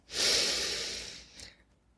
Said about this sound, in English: You might be familiar with this kind of sequence from yoga and then make sure you breathe. So we're breathing in all the things that we want to, to keep from our day.